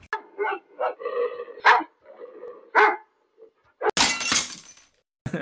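Several pit bull dogs bark in a quick, rough series of loud barks, followed by a sudden noisy crash like something breaking, then a brief bark at the end.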